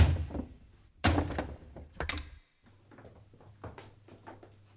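Heavy thuds strike a wooden door, locked from the inside, about once a second, each booming and rattling, until it gives way and swings open with a fainter creak and clatter.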